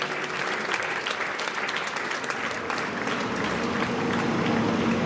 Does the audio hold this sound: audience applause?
yes